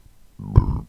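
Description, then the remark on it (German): A single sudden sneeze bursts out after a moment of near silence, loud and breathy with a voiced edge, fading quickly. “Upsala, Entschuldigung. Gesundheit.”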